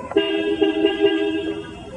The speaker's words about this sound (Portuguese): Ele não tem motorista, ele é comandado por este controle remoto. Atenção, vou ligar o carro. Agora Vou colocá-lo para frente. É, o carro está andando com controle remoto, esse carro desse tamanho. Legal, legal, bem bolado. E atenção para a buzina.